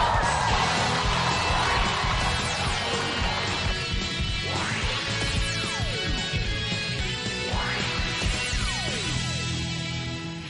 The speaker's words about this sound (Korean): 박수 부탁드리겠습니다. 감사합니다. 네. 우리 패널분들 모시겠습니다. 여러분 박수로 환영해 주시기 바랍니다. 어서 오십시오.